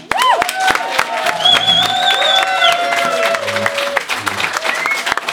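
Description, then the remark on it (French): A large standing crowd applauds steadily with dense clapping for badminton champion Denise Julien, while shouts, cheers and high whistles rise over it throughout. No one speaks clearly above the noise. “Euh, la foule est vraiment délire. Tout le monde s'est levé debout. Euh, et on acclame Denise.”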